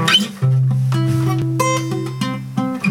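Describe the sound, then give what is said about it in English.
A C major guitar chord picked one string at a time: middle finger on the D string at the second fret, open G, index finger on the B string at the first fret, and open high E. The open strings ring together in a bright, harp-like arpeggio, clear with no voices. “Open G string and index finger finally on that little B string first fret and that open little E.”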